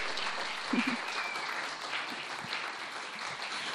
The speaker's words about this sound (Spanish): Por favor, chicos, entren, reciban su aplauso. Tenemos público en vivo